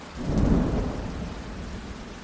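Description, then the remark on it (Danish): A thunderstorm from cumulonimbus clouds with heavy rain: a deep rumble of thunder swells early on, then fades into a steady, dense roar of pouring rain. No voices are heard. “De her skyer er nemlig fyldt med alt det vildeste vejr. Lyn og regn og nogle sindssygt kraftige vindstød.”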